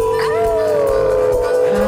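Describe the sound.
Several voices on the Moondog Show let out a long, loud howl together on the count of three, howling at the moon dog in imitation of dogs baying, one sustained wavering note that dips slightly in pitch and fills the whole moment.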